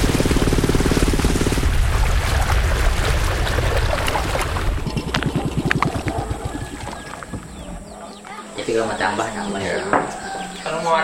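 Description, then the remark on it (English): A boat's motor drones steadily over rushing water for several seconds as the boat travels to Long Pai, an indigenous Dayak village, then the scene turns quieter, with birdsong and faint voices in the background. “So we travel to the end of the road and from there take a boat to Long Pai, an indigenous Dayak village.”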